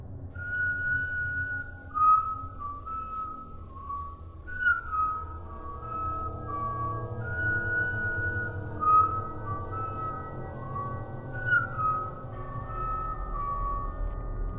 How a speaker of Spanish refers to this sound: Me senté junto a él y esperamos. Eran exactamente las 3 con 3 de la madrugada y comenzamos a escuchar el silbido.